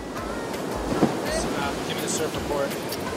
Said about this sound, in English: All right, so we're here at a surf spot called Bluff. Um, Bluff is just this super impressive thumping beach break that just breaks 10 yards offshore.